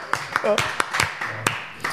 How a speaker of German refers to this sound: Ein Applaus für Peter Neuro. Jawohl.